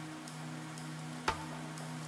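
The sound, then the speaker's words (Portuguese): Soft, steady rain hisses outside onto a deserted street under a low electrical hum, with a single sharp drip or tap standing out partway through and faint, evenly spaced ticks in the background. “Abri a janela e comecei a observar a chuva do lado de fora.”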